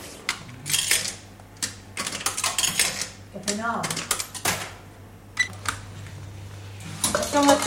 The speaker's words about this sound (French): On court vite à la machine. On prend son petit café.